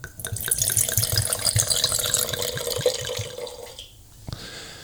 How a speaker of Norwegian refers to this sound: Det er i hvert fall nydelig lyd når vi heller i glassene våre.